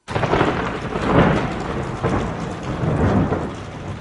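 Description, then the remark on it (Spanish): Heavy thunder rumbles and booms over a steady hiss of pouring rain, swelling in several loud, rolling surges without a break. No voices. “En el cielo aparecieron rayos y oímos fuertes tronidos que anunciaban un aguacerazo.”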